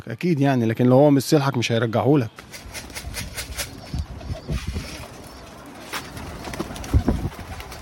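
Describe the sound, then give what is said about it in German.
Pigeons coo loudly in open wooden coops at a loft, then give way to a busy stretch of scattered wing flaps and rustling as some take off and land on a brightly painted tower, with softer calls in the background. “Die Tauben gurren in offenen Holzverschlägen, Manche starten und landen gerade auf dem bunt angestrichenen Turm.”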